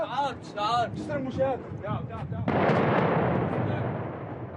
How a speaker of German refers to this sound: Ein Hubschrauber der syrischen Armee wirft eine Fassbombe ab, ein Stahlbehälter gefüllt mit Sprengstoff und Eisenkugeln.